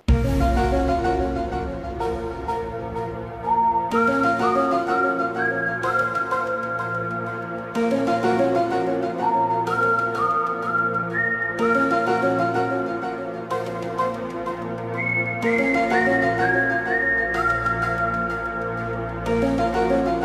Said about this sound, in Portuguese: agora após esse suspense da, da abertura do arquivo X, por que isso?